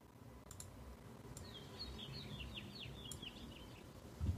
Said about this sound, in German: Ach, ich mach's noch mal ein bisschen leiser, sonst irritieren mich die Vögel hier.